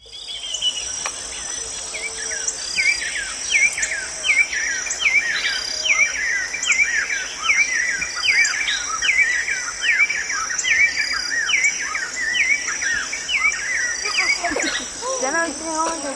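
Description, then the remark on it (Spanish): A lagoon soundscape from Yucatán: a steady, high insect drone runs throughout while rapid, repeated chirping calls pulse across the middle, with scattered bird calls rising toward the end. “En este caso publicó un proyecto llamado Cinco Ecosistemas de Yucatán y de este proyecto lo que escucharemos es el paisaje laguna.”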